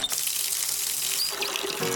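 Water runs steadily from a tap into a sink, a continuous hiss and splash that stays even for the whole two seconds, with no voices.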